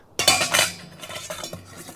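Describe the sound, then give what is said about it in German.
Boiled, sterilized surgical instruments, including clamps and forceps, clink and rattle together in an operating tent at a field dressing station, a burst of bright jangling followed by quieter scattered clinks and a couple of sharper taps, with no voices. “Schieben, klemmen, Pinzetten. Alles ausgekocht, alles bereit.”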